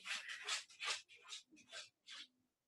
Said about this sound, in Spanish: mi perro